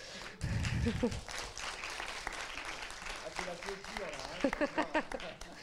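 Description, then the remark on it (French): A film festival audience applauds the festival's organizers steadily, with a dense wash of clapping that carries on throughout while voices and talk come through over it toward the end. “Voilà, applaudissons-les.”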